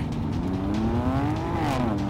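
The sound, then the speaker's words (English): Heavy trucks mounted with machine guns rev hard and accelerate in pursuit, a loud, continuous motor roar whose pitch climbs steadily, dips briefly, then rises again, with no voices over it. “think the guys in those trucks, trucks mounted with machine guns, I might add, might want a word with you, dear brother.”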